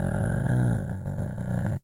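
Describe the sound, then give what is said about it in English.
A voice imitates the low, steady mechanical growl of an under-desk bike being pedaled, a rumbling, purring drone held for nearly two seconds before cutting off abruptly. “It's not loud, but it sounds like a muffled cat is growling at me.”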